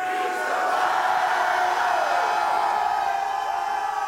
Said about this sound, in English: Preach, let's scream, preach the word. Where, where are your screams? Where are your, where, where, shout it, preach the word.